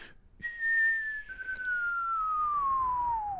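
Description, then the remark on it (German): A voice whistles a single long, steady tone that slides slowly downward in pitch for about three seconds, imitating an atomic bomb dropped from an airplane as it falls. There is no talking. “Eine Bombe, die du in ein Flugzeug tust, dann fliegst du irgendwo hin, schmeißt sie runter, buff. Das macht dann so.”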